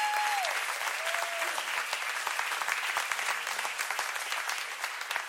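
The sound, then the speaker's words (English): A large church audience, standing, claps steadily and loudly for several seconds to welcome a pastor coming up to bring the word in the evening, a dense wash of applause with a few brief whistles or cheers rising near the start. “Come on, let's give him a warm home church welcoming as he comes and brings the word this evening.”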